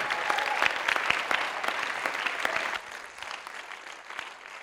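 An audience applauds steadily, a dense patter of many hands clapping at once. The clapping stays loud for a few seconds, then thins and softens as it begins to die down.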